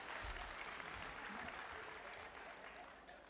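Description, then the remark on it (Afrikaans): A crowd applauds steadily, many hands clapping in a dense, sustained patter, tapering only slightly toward the end. “Kom ons gee net vir maande klap.”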